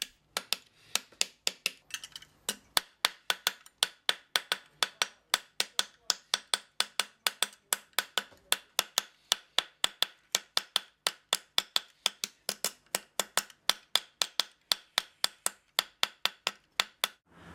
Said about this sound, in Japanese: 銅は手で曲げられるほど柔らかくなり加工が容易になります銅を叩いて形を整えていきます